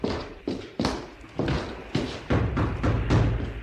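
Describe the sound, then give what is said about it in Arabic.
A ship's captain knocks on a door aboard a ship: about eight firm, dull thumps in an uneven rhythm, some spaced apart and others coming in quick pairs, fairly loud with no voices. “ولقيت الريس ومعاه الناطور ووراهم عشرة ما بين وزراء وما بين أمرة وقف الريس يخبط على باب القمر”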